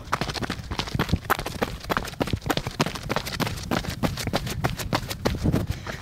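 Quick, steady footfalls pound along in a rapid rhythm for several seconds, fairly loud, as a person sprints during a run, with heavy breathing and movement noise underneath and no talking.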